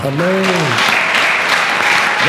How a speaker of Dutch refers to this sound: Dus, applaus voor jullie allemaal.